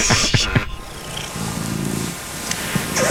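cat purring

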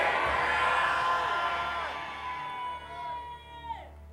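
audience shouting amen

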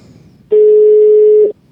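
outgoing phone call ringing

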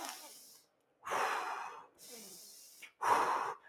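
breathing in through nose

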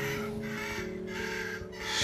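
parrot squawking

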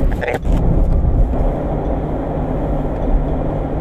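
inside a moving car

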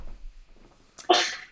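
sneeze

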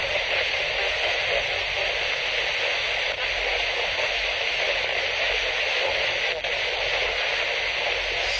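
radio static hiss

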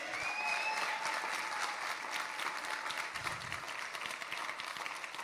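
audience applauding

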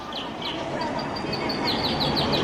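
birds singing

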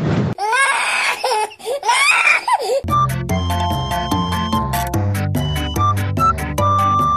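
babies crying and screaming

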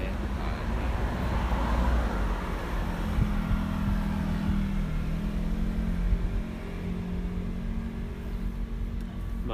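car driving past outside

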